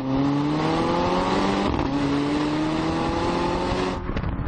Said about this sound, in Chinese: 这虽然是一台 2.0T 的发动机，但是它的排气管的声浪呢，还是非常非常的动听的，特别是在换挡的那一瞬间，那种爆发力。